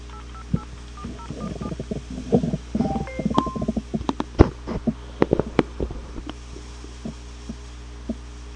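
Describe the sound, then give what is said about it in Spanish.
A rapid series of short telephone keypad tones beeps in uneven rhythm as a phone call is placed, each a brief electronic chirp, over a steady low hum with soft thumps and clicks in between. “Llamamos.”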